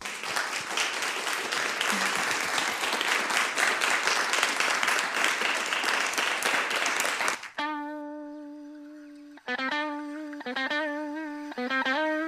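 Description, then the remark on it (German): An audience at an evening talk with questions from the public applauds the speakers with dense, steady clapping for about seven seconds, then it cuts off and sustained electronic music tones follow, shifting pitch a few times. “Vielleicht können wir nochmal applaudieren für alle.”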